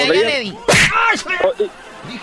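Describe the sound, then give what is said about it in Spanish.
A single sharp, loud slap across the face cracks out, cutting briefly through animated talking voices that continue around it. “dale una cachetada.”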